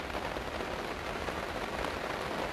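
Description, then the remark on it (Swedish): Steady rain falls without pause, a dense, even hiss of drops pattering on a surface. It sounds continuous, with no voices. “Fortsätter regnas, det regnar.”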